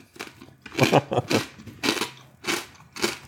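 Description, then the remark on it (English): Loud crunching of sweet, crunchy crackers being chewed, a series of dry, crackly bites in irregular bursts with brief pauses between them. “mm, they're very crunchy. I bet that comes out really well on the mic.”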